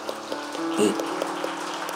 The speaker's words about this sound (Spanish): Dele un aplauso fuerte al Señor entonces.